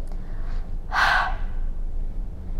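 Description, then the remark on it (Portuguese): A single forceful breath pushed out through the mouth during a breathing exercise, after breathing in deeply through the nose to fill the lungs: a short breathy whoosh lasting about half a second, fairly loud, with quiet low background hum and no talking. “Quando estiver bem cheio, solte o ar pela boca, fazendo este som.”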